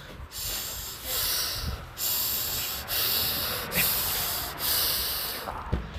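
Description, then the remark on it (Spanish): A voice imitates the heavy, angry snorting breaths of a furious classmate breathing hard in his chair during class, forcing harsh, noisy bursts of air through the nose in a steady rhythm, about one every second, loud. “Que estaba rabiando en su silla, viejo. Estaba respirando así de fuerte.”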